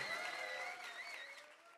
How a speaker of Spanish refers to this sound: un aplauso. Celebre conmigo lo que Dios está haciendo.